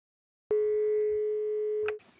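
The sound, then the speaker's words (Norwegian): A single steady telephone ringback tone of an outgoing call to the emergency number sounds for about a second and a half, clear and fairly loud, then cuts off abruptly. Nobody speaks. “Jeg, og nå har jeg vært ute en god stund og tenker at jeg vet at nå, nå må jeg ringe nødtelefonen.”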